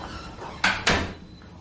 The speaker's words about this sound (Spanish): El médico cierra la puerta.